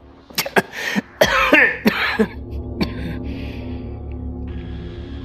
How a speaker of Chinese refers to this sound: …突然猛烈的咳嗽起来，但眼里却放着光